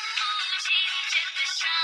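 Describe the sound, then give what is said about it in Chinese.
A man's mobile phone suddenly rings with a bright, melodic ringtone, its tones playing continuously at a steady level throughout, with no voices. “突然，他的电话响起。”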